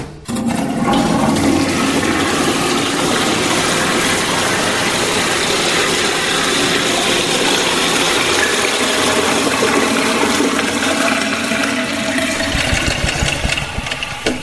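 A toilet flushes with a loud, steady rush of water lasting the whole stretch, carrying a rattling, grinding mechanical edge before easing off at the very end. No one speaks.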